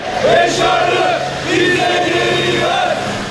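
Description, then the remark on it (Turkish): A protest crowd in front of the Syrian Consulate General in Istanbul chants loudly in unison for Başar Fehmi Kadumi, many voices joining in repeated rhythmic phrases, roughly three sustained shouted lines rising and falling over a constant murmur. “Başkonsolosluğun önündeki protesto sesleri Kadumi için yükseldi.”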